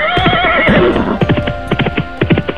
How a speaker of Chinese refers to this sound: 马蹄声传来，尘土飞满天。